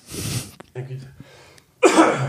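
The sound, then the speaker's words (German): A person coughs and clears their throat, with two harsh bursts separated by a brief voiced rasp, all within a couple of seconds. “Tut mir leid, ich habe irgendwie einen Frosch im Hals, aber.”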